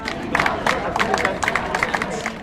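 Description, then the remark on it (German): A crowd of around 250 supporters of the Letzte Generation climate movement chants rhythmically outdoors in Kassel's city centre, many voices rising together in repeated shouted bursts of "Klimaschützen ist kein Verbrechen" over a steady din of street noise, fairly loud. “Es sind rund 250 Unterstützer, die sich in der Innenstadt eingefunden haben.”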